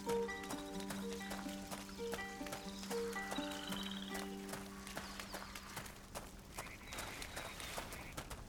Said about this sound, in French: C'est quoi ce bruit C'est rien. C'est juste des grenouilles, Hugo. Des grenouilles